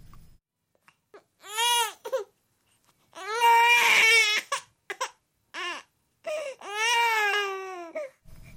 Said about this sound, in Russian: Раздался плач новорожденного ребенка, но женщина не обращала на него внимания.